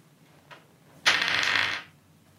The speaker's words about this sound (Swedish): Ja, 17. Jag slog bra på tärningarna.